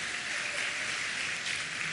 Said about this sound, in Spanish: Yo creo que la banda se merece un aplauso más fuerte porque ellos se preparan